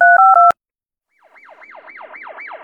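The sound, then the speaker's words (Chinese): Late at night in a top-floor office of a business group's building, a secretary hurriedly dials a phone to report to the police: three quick touch-tone beeps ending in a sharp click; after a short silence, a wailing siren rises and falls in rapid cycles, growing gradually louder. “秘书慌忙的打电话报”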